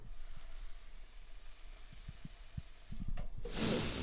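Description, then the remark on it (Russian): Shakshuka sizzles in a frying pan: a steady bubbling hiss with scattered soft crackles and pops. The sizzle swells into a louder, brighter rush near the end. No one speaks. “а вы пока послушайте, как, шук, как шумит моя шакшука.”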